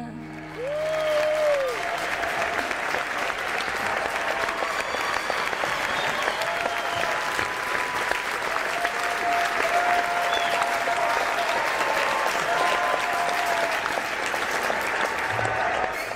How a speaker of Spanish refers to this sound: Eh, si les dejo, siguen ¿eh? aquí, los fans. Madre mía, muchas eh, gracias. Los 2.500 se suman aquí los otros seguidores también y mira, todos aplaudiendo.